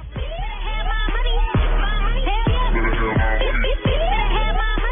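A pop song plays loud and continuous, with a sung vocal line gliding over a deep steady bass and regular punchy beats, the sound a bit muffled and lacking top end.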